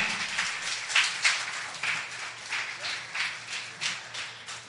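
Steady applause for the Lord from a church audience in the morning, many hands clapping together in a dense, continuous wash with slight rhythmic swells, moderately loud throughout, with no voices standing out.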